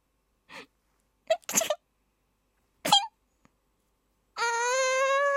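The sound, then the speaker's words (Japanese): A voice imitates the dainty, affected sneeze of a girl who thinks she is cute: a few breathy little gasps and two short, sharp sneeze bursts, followed by a sustained high, sing-song vocal tone. “その3私可愛いと思っている女子のくしゃみ。”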